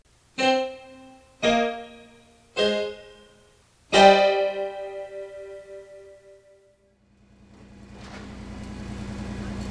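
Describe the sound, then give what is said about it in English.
Four bright, ringing tones sound one after another, the last lingering and fading; then a low, broad rumble of heavy trucks driving through the streets of Large Neck, about to begin road resurfacing, swells up and grows steadily louder, with no talking. “As I record this, sus trucks are rumbling through the streets of Large Neck.”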